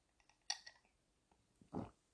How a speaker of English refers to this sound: Ah, forgive me. I take a sip of my tea, my chamomile before bed.